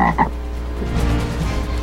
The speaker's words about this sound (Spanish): ¿Pueden sacar el sapo, por favor, de la conferencia? Y no podemos continuar, eh, señores. ¿Qué sacamos, el sapo o la rana?